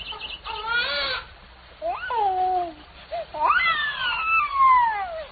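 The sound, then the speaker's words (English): A human baby cries in three wavering, high-pitched wails with short gaps between them, fairly loud, with no talking around it. “It was a man cub.”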